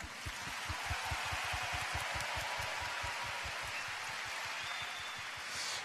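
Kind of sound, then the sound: crowd, audience applause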